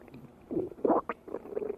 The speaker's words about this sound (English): That's not your car no, that's your stomach telling you it's time to eat. You can fix that, you know.